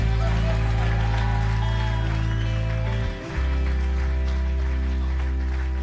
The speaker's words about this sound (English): If you believe it, give a hand clap and a shout.